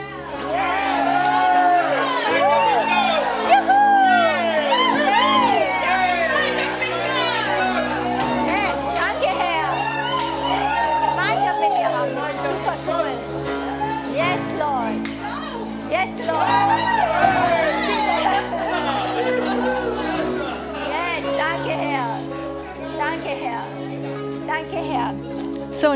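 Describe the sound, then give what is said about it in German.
A large crowd shouts and cheers joyfully, many voices overlapping in a loud, sustained roar of jubilation with rising and falling calls, lasting throughout without pause. “hey, ich lass mich nicht einschüchtern, wer bin ich und so weiter, sondern ich sag, ich habe Gemeinschaft mit Gott, dass du das wirklich mal so laut, voller Freude, auch realistisch ausrufst, weil das ist ein Grund zum Jubeln.”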